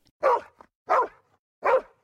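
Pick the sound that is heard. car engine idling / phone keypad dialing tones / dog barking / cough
dog barking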